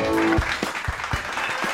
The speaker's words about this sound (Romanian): Aplauze, da. Aplauze, aplauze, așa trebuie, da. Felicitări, felicitări. Bravo, băieți.